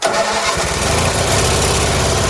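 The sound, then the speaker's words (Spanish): A heavy tractor engine cranks over and catches, settling into a loud, rough, rhythmic chugging idle, with no voices. “Arranca el tractor.”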